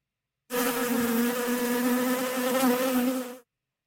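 A bee buzzes loudly for about three seconds, a steady droning hum that starts abruptly and cuts off just as suddenly, with no other sounds.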